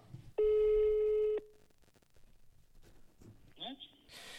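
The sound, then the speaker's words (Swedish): A single loud, steady telephone ringback tone sounds for about a second over the line while a call is being placed, followed by quieter line noise, a short rising chirp and a burst of hiss. “Eh, men ja, vi ringer upp han.”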